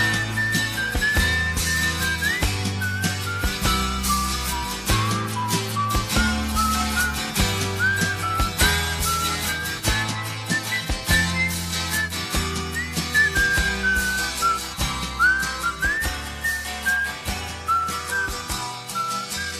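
Someone whistles a lilting melody over a full, steady musical accompaniment with a thumping bass line, the whistled tune bright and clear throughout, with no talking.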